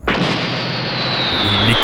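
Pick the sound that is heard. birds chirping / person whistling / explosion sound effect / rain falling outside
explosion sound effect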